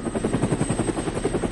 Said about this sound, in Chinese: 哎，快看，那是什么？是直升机。